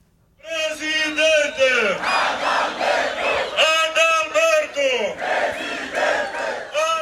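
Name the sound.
large rally crowd cheering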